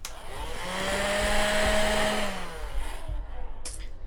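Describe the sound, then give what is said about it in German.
A steady whooshing hum with a faint whine, like a vacuum cleaner running, probably imitated by a voice. It holds for about two and a half seconds, then cuts off, leaving a few soft clicks. “Ich kann das gar nicht, ich kann nur Staubsaugergeräusche einspielen.”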